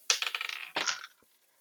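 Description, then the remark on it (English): Two quick bursts of d20 dice clattering across a hard tabletop, each a rapid rattle of bright hard ticks, followed by one faint final click as a die settles. Fairly loud, no talking. “D20s to the ready, gentlemen. Let's do it.”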